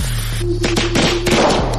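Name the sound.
firecrackers going off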